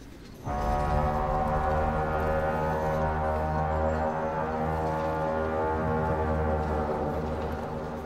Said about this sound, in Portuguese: Uma corneta ao longe, muito alta, mas muito alta.